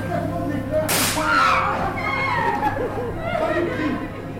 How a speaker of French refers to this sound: Regarde l'exposé d'électrostatique qui est présenté dans un amphithéâtre plongé dans la pénombre. C'est ça, le bruit d'abeille, c'est le bruit de fuite. Alors ah, le bruit de l'éclair,